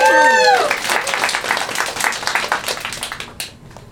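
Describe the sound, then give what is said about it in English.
A short burst of applause: dense, crackling clapping that swells quickly after a brief high whoop, then thins out and fades over a few seconds. “A round of applause for all of our nerds.”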